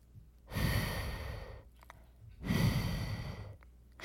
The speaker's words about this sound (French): Il boit une gorgée, mais c'est encore trop chaud. Sois patient, petit garçon, souffle dessus, sinon tu vas te brûler la langue. Le petit garçon souffle doucement.